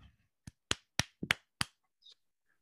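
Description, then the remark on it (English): A few slow, deliberate hand claps, about six sharp smacks spaced unevenly over a second or so, followed by quiet with a faint brief sound at the end. “Slow clap.”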